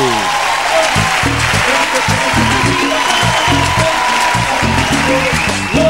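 Loud, steady audience applause fills all six seconds, a dense wash of clapping with a low rhythmic thumping pulsing underneath throughout.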